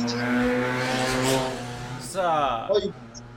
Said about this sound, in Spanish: pasó un auto ahí a toda velocidad, ¿qué fue eso? Una a toda velocidad.